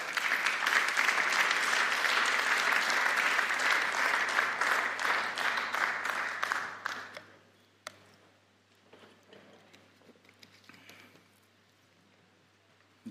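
An audience claps steadily with a dense, loud, crackling applause for about seven seconds, then it fades quickly into scattered faint claps and quiet rustling.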